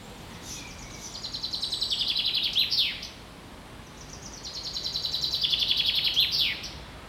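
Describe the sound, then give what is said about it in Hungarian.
A bird sings two clear phrases of rapid, high chirping trills, each building and ending in a quick downward flourish, heard alone against faint background hiss. “Erzsikének csendet és madárcsicsergést küld a Bejön FM stábja a sárkeresztesre.”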